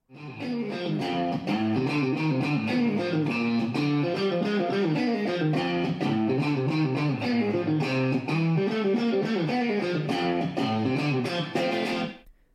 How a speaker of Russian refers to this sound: Например, так звучит гитара, сделанная из айфонов.